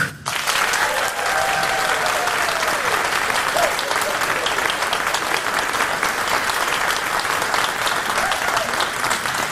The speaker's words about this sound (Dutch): En ook voor mijn gast vandaag, staatssecretaris voor asiel en migratie, maatschappelijke integratie en armoedebestrijding. Dames en heren, uw applaus voor Maggie de Blok.